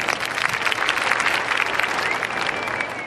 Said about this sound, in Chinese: 好，那就是第一季《象牙山乡村爱情人物颁奖典礼》，现在开始， 鼓掌。